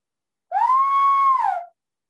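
A single loud whistle rises quickly, holds a steady pitch for about a second, then slides down and stops. No other sounds around it.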